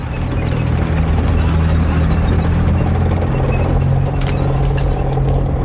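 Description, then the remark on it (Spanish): A car drives by on a street, its heavy engine rumbling loudly and steadily throughout, the low drone shifting slightly in pitch partway through, with no voices. “Un carro pasa de largo ante la calle.”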